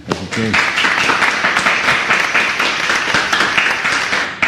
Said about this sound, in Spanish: Eh, quiero pedir un aplauso por ustedes. Gracias por estar aquí.